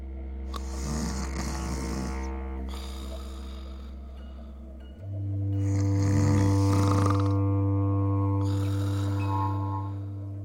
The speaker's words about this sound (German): Wie entsteht es eigentlich, dieses sägende, röchelnde, für Mitschläfer nervtötende Geräusch? Immer dann, wenn der Luftstrom im Atemweg auf eine Engstelle trifft und das Gewebe an der Stelle vibriert.